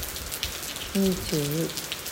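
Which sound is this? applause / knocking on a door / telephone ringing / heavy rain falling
heavy rain falling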